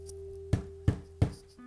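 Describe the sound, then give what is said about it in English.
Three loud, evenly spaced knocks thud on an office door as a video game character reaches it, each a sharp heavy bang, over a faint steady electrical hum with no voices. “Once he reaches the door, he will knock loudly”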